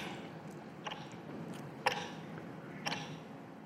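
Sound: clock ticking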